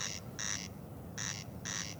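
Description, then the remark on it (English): A corncrake's harsh, rasping call repeats in two double bursts, crex-crex, pause, crex-crex, loud and clear over a faint low rumble, with no voices. “So it's a peculiar thing that that's what's happening with the corncrake's call.”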